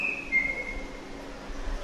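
A white-rumped shama sings one clear, high whistled note that glides slightly downward and fades after about half a second, leaving a faint low background hum. No one speaks.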